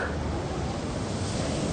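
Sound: ocean waves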